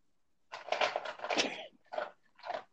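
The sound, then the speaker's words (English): A dog named Tank eats food from its dog bowl, with a stretch of crunching and clattering followed by two shorter bursts after brief pauses. Nobody speaks. “Do you hear my dog eating?”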